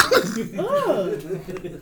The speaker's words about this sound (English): You about to, you about to clear your throat, you man. Rather than clear your throat, you want to talk like that, man.